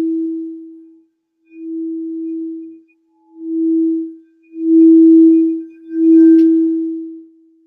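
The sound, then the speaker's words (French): A singing bowl for the third chakra, the solar plexus, hums with a steady, mid-low pure tone that swells and fades in waves, growing louder and slightly richer with a faint metallic shimmer toward the end. No one speaks. “En fait, à la vibration du bol joué, vous n'avez rien d'autre à faire qu'à rester sur votre respiration”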